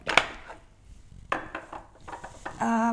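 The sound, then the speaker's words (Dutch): A metal spoon clinks sharply against glass a few times, with soft scraping and tapping of instant coffee granules between the bright clinks, ending in a ringing, tonal glass sound. “Ik, ik doe nu oploskoffie in een eh, glas.”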